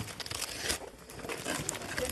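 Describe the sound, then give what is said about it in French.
Gift wrapping paper crinkles and rips as children tear open their presents on Christmas morning in a family home in Lorraine, France, a busy rustling burst lasting a couple of seconds, with faint voices in the background. “Et dans les familles lorraines, certains enfants se sont déjà jetés sur les cadeaux.”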